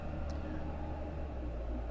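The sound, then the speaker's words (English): A large furniture truck rumbles by outside, its heavy engine a steady, deep drone that fills the whole two seconds at a moderate, constant level. “That's a furniture truck.”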